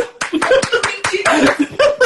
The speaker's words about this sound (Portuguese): Palmas, palmas.